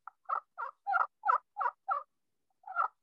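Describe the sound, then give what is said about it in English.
A turkey call, played with an oval, almost circular stroke instead of a J shape, gives a steady series of about seven short, raspy yelps in even rhythm, then a brief pause before more yelps resume. Clear, with no talking. “I just I, instead of making a, a J shape or football, I play more in an oval. Okay. I play almost in a circle.”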